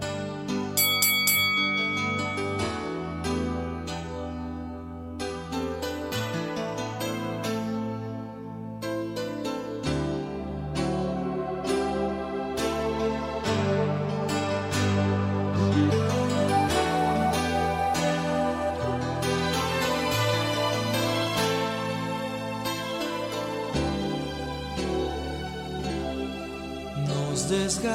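A song about a breakup and a farewell plays steadily and loudly throughout, with full instrumentation, bright bell-like high notes and a sustained bass line, and no talking over it.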